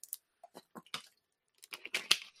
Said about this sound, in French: attends tu m'excuses, je prends une petite gorgée d'eau.